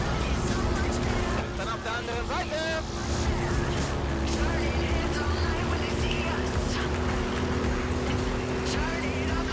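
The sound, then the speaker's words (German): A video game truck engine drones steadily throughout, a loud continuous rumble with a constant low hum and road noise, and a voice is briefly heard near the start. “Der Truck fährt sich auf jeden Fall ganz nice.”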